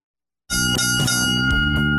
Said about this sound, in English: Ah, three bells and all is well. Back for round three.